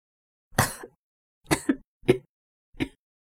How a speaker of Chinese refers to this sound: 熏了一会儿艾草，张雨欣猛烈的咳嗽起来。